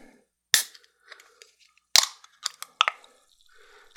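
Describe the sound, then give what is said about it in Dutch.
A can of Fentimans botanically brewed ginger beer being opened: sharp metallic cracks of the tab, each trailing off into a short burst of fizzing hiss, with softer clicks and handling noises in between and no talking. “Zoveel blikjes openen, mijn hart springt een paar keer open, over steeds.”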